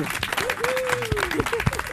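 A crowd applauds steadily, dense clapping at an even loudness throughout, with a long sustained whoop gliding up and down over the clapping and a few heavier claps near the end.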